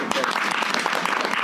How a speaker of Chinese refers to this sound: 来鼓掌一下吧！